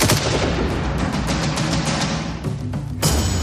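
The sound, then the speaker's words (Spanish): A loud, dense barrage of gunshots fires in rapid succession, cracks overlapping into a continuous rattle, with one sharp, bright shot standing out near the end, as snipers posted in front of a house in Tacoma shoot a woman coming out of the door. No one speaks. “Cuando la puerta se abrió y salió la sobrina de Isa, fue abatida a tiros.”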